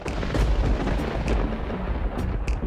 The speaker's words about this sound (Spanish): El cielo está oscuro. Se escucha un enorme estruendo. Un rayo cae en el patio.